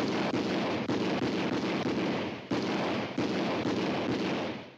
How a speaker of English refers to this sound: With the advent of sound in 1927, the blaze of gunfire intensified the thrill, and what that delivered was a sensorial experience that excited filmmakers but deeply worried lawmakers.